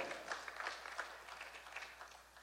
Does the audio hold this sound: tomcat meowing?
no